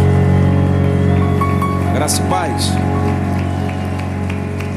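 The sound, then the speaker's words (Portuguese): A church audience applauds the Lord with a steady, dense wash of clapping that holds loud for several seconds, while a man speaks over it briefly. “Dá uma salva de palmas bem forte. Enquanto você aplaude ao Senhor, diga glória a Deus.”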